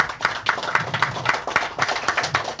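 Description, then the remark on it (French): An audience applauds steadily to welcome a team member at a presentation, with many hands clapping in a dense, crackling patter of sharp claps that holds at an even loudness for a couple of seconds. “Donc, applaudir”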